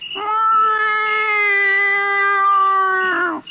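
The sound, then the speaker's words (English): A man's voice imitates a howling cat, holding one long, steady, wailing tone for about three seconds before it cuts off. Loud, with no other sounds. “Make like a howling cat again”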